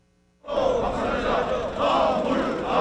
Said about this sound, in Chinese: 一大群卡车司机举着标语上街抗议。这场南韩卡车司机大罢工已经持续整整一周。